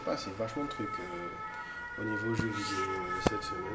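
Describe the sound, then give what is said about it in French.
A siren wails steadily and faintly in the background, holding a constant tone throughout while a man talks over it in the foreground. “Désolé pour la sirène.”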